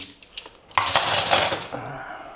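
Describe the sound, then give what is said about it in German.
Metal cutlery rattles and clinks loudly in a drawer, a few light taps followed by a sustained jangling burst of silverware shifting, with no talking. “So, scheiß Besteckschubladen.”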